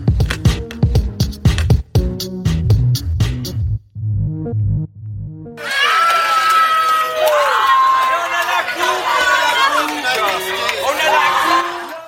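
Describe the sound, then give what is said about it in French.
A short rhythmic musical intro gives way to a loud, dense crowd of French fans cheering and shouting in celebration of France's victory over Croatia in the World Cup final in Moscow, many voices rising and falling together in a sustained roar. “dimanche 19h, qu'ils soit en Russie, en France, en Outre-mer, les Français ont laissé exploser leur joie grâce aux Bleus qui ont battu les Croates en finale du mondial à Moscou.”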